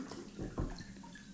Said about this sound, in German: Entschuldigung, warte mal, ich gieße kurz ein. Das ist wichtig.